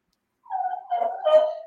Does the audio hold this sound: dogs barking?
yes